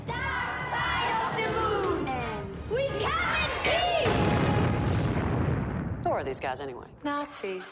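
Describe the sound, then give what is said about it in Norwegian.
A cinema audience in central Berlin cheers and shouts enthusiastically at the world premiere of the film Iron Sky, many voices overlapping in a loud, continuous roar with deep rumbling booms underneath, tapering into scattered yells near the end. “I en kinosal midt i Berlin roper publikum begeistret for verdenspremieren på filmen, som flere av dem har vært med å betale for.”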